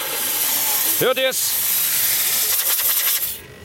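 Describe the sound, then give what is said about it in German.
A loud, steady hiss of compressed air being let out at the back of a compressor fills the whole stretch, with a short spoken question cutting in briefly before the hiss fades near the end. “So, passt mal auf, ich lasse mal hier hinten die Luft absausen.”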